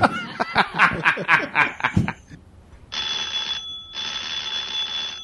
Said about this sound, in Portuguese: Esse telefone que assusta todo mundo é uma, é uma regra, né, velho?